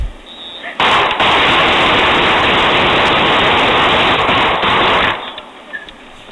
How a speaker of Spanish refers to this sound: Y eso que usted acaba de escuchar, habrán sido al menos unos 15, 20 disparos. De cuatro personas. cuatro personas. Cada uno habrá tirado unas cuatro o cinco veces enfrente.